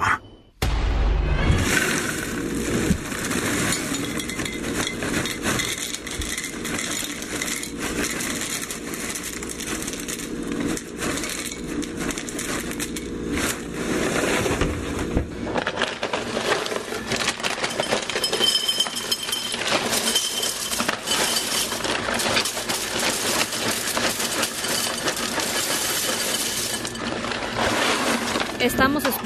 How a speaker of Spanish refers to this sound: escuchando pues como sonido de cereal, ¿no? Que, se, eh, en un plato.